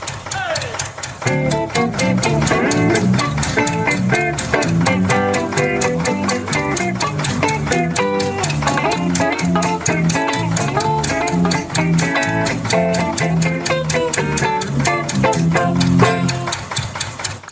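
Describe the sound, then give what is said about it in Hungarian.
An upbeat instrumental intro tune plays at a steady, loud level, with a driving regular beat under layered melodic and chordal parts, continuing without any talking. “Jó, akkor, akkor elindítom az intrót.”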